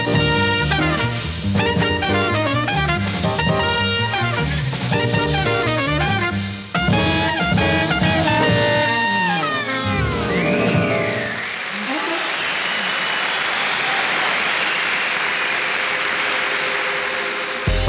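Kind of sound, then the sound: crowd, audience applause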